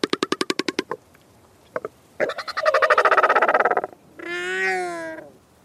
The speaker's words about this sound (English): Let's hear the Southern Royal Albatross for ourselves.